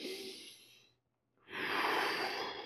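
A slow, deliberate deep breath as a breathing exercise: a long airy inhale, a brief pause of silence, then a fuller, louder exhale through the mouth, with no talking.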